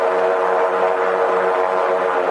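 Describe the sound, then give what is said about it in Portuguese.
A blimp's engines drone steadily as it climbs after takeoff from the Campo de Marte airfield, over the Marginal Tietê at about 900 feet, a loud, continuous propeller hum with layered mid-pitched tones and no pauses or voices. “Agora ele deu uma reduzida nos motores.”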